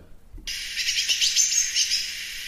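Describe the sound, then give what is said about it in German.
After a brief pause, a bird's battle call played from a recording bursts in: a dense, continuous stream of sharp, high chirps and chatter, loud, running without a break until the end. “So, und weil wir jetzt dabei sind, mache ich auch diesen Battle-Ruf einmal, dass man den ja, einmal genau.”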